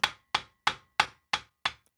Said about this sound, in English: Wes Shugart says there are more than 350 steps that go into making a cowboy boot. Hammering is just one.